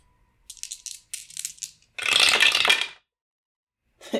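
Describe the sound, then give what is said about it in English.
Dice rattle and clatter in short bursts, then one loud, longer roll tumbles across a hard surface before a brief final clack, as the dice are rolled for an intelligence roll. No one speaks. “Uh, roll an intelligence for me.”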